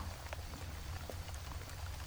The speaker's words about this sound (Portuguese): Chove. A chuva cai sobre as cabeças na cidade. Inunda as janelas de gotículas tão pequenas que me fazem sentir imensa como o interior de uma mata úmida.